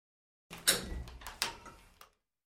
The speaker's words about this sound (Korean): 이상하다 생각하며 현관문을 열었다.